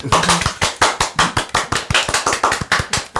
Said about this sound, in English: I think we need a, a, round of applause for her.